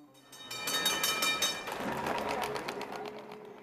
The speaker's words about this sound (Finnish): Ratikka kulkee vanhaa reittiään.